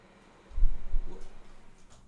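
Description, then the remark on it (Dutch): A window is pushed shut, a soft, low thud followed by a brief dull rumble that quickly fades, with no voices. “Ja, ik ga je even de raam dicht doen, want je komt er fucking elke weer langs.”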